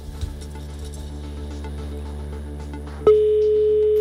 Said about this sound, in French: Quatre sonneries, je crois qu'il reste plus qu'une sonnerie.